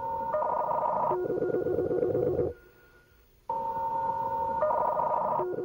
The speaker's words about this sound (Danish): der er den der sådan nærmest telefonen, eller nej, jeg vil sige modem agtige ringtone.